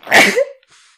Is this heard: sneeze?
yes